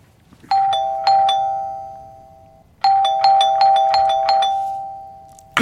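An apartment doorbell rings in quick bright electronic chimes, first a burst of three, then after a pause a faster run of about six, each ringing out over a steady tone. No one speaks.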